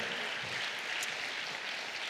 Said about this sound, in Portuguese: Oh, quantos podem aplaudir o Senhor e glorificar o nome dele? Aleluia! Aleluia!